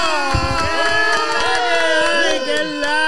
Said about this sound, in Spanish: me lo reciben con uh. un fuerte aplauso